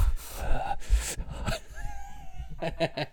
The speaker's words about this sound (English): just going to be breathing heavily for the next 10 minutes.